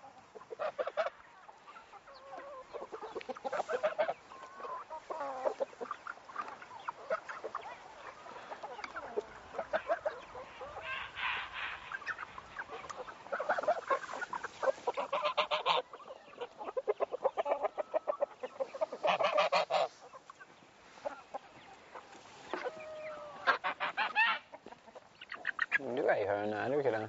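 A flock of chickens hatched this year clucks and chatters continuously, with a young rooster's scratchy, unfinished crowing attempts rising above the steady barnyard murmur.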